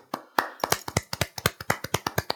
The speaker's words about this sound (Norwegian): Gratulerer. Gi en liten applaus.